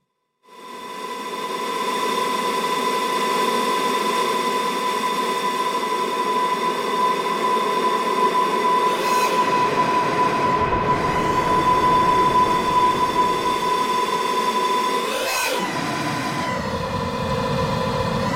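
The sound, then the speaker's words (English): A dense granular sampler texture from a Clouds module, used as a granular sampler, drones steadily and loudly, layered with many held tones, and sweeping pitch glides rise and fall twice toward the end. No one speaks. “I usually use clouds as kind of like an af- like an effect on the end of everything to kind of make it sound better, but I don't use clouds as kind of what it is, which is like a granular sampler type deal.”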